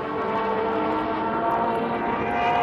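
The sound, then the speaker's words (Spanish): A Luftwaffe Stuka dive bomber's siren, known as the Trumpets of Jericho, wails in a loud, steady tone over the roar of an aircraft engine, sustained without a break for the whole moment. “La Luftwaffe había equipado al Stuka con una sirena infernal, conocida como las trompetas de Jericó, haciendo alusión a la historia bíblica.”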